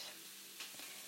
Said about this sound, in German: ich weiß auch gar nicht, wie das jetzt so rüberkommt, ob das cool wirkt, wenn man so ein bisschen die Arbeits- und Köchelgeräusche im Hintergrund hört.